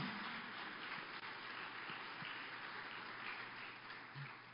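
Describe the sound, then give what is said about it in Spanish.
A church audience applauds for the Lord during a sermon, dense rapid clapping filling the whole stretch at an even, sustained level with no voices standing out. “Si le vas a dar un aplauso, dáselo al Señor.”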